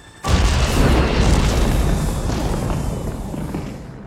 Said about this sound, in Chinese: 最终的最终，炸弹在空中爆炸，所有人都被拯救了。